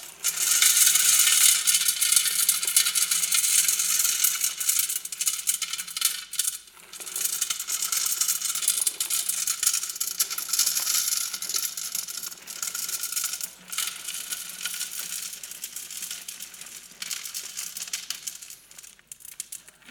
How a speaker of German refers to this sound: Ja, richtig, das Glas scheint voll zu sein, aber ich habe euch hier noch etwas Kies mitgebracht, das man jetzt hier reinschütten kann.